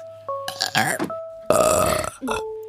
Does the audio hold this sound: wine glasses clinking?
no